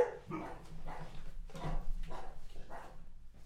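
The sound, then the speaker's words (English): A dog barks repeatedly in a fairly steady rhythm, about half a dozen sharp barks over a low constant background hum, with no one speaking. “Cut, Doggy cut, interlude.”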